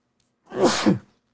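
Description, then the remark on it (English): A single loud sneeze bursts out after near silence, with a sharp intake followed by a forceful, breathy explosion that fades quickly. “I'm going to sneeze.”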